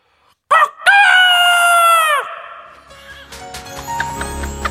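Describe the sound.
A person, lost at night among rice-field roads, loudly imitates a rooster's crow out of an open car window, a long strained cock-a-doodle-doo that holds high and then drops off, followed by faint scattered background noise.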